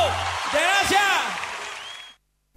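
A burst of applause mixed with cheering and whoops on the Radio Tú broadcast, a dense wash of clapping that holds steady for about two seconds before cutting off abruptly into silence.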